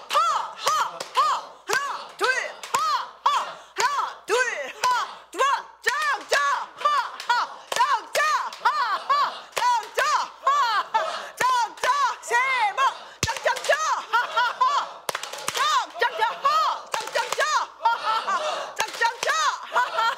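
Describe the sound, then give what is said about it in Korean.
Steady, rhythmic hand clapping as part of a laughter-clapping exercise runs throughout, mixed with loud, continuous laughter from several voices, the claps sharp and fairly regular beneath the laughing. “어, 웃음 박수 준비!”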